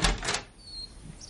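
Marie opens a door: a couple of quick rattling clunks from the handle and latch, followed by a faint, thin high squeak as it swings, then quiet.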